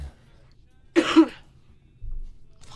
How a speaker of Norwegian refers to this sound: Og venter med å hoste til vi har satt ned.